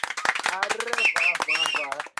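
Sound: hands clapping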